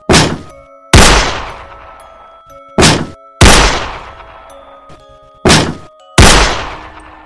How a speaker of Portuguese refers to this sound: Corri até a porta e tentei arrombar. Foram três chutes e três disparos.